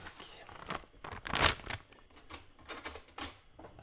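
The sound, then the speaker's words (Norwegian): A chocolate wrapper is crinkled and torn open, a run of irregular crackly rustles with one sharper, louder rip near the middle, then softer crinkling continuing to the end. “Der var det litt sjokolade.”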